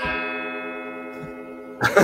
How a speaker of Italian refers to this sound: Azzo, ah, 11 rintocchi, signori. No, ah. qua non finiscono più.